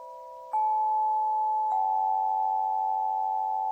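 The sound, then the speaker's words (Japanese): A newly returned crystal singing bowl rings with a pure, sustained tone. It is struck twice so a second tone layers over the first, and the notes hum steadily without fading, clear, with no voices. “復帰しましたクリスタルの音色のご紹介”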